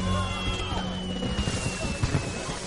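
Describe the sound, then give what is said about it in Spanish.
Fireworks set off by pressing a tablet in a garden go off in a dense, crackling burst of pops and bangs, with a thin whistling tone running through and several sharper blasts near the end. “Pulsa en la tablet y se disparan los fuegos artificiales.”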